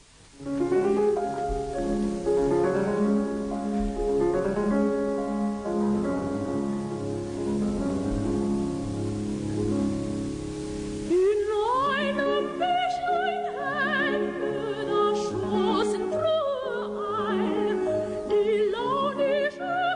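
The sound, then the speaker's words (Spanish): A piano plays a bright, lilting introduction alone, then soprano Barbara Hendricks enters midway, singing Schubert's original art song 'Die Forelle' (The Trout) with vibrato over the steady piano accompaniment, clear throughout. “vamos a escuchar el lido original de La Trucha”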